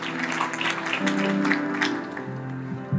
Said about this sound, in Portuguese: Se coloque de pé, se coloque de pé aplaudindo a Jesus.